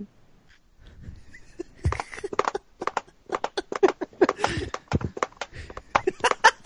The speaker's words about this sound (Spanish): ¿Qué es esa weá? Un caballo. Un caballo con, con dos patas.